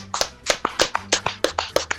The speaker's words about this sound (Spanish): Un aplauso, un aplauso.